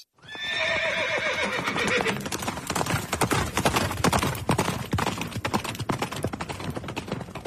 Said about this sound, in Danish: Det er så nederen, når Swift ikke har bundet hestene, og så drøner de Turpin bare forbi. Ja. Og man når ingenting. Man når ikke engang high five.